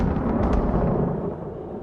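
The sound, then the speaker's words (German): A loud lightning strike from a huge red bolt out of the sky: a sharp crackling burst over a heavy, rumbling boom that fills the sound and slowly fades over a couple of seconds, with no voices. “Schließlich fährt ein riesiger roter Blitz aus dem Himmel, trifft Padme und pulverisiert sie völlig.”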